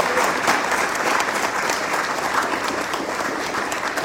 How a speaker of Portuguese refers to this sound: Vocês estão muito quietinhos hoje. Dá salva de palmas a Deus aí, dá uma glória a Deus.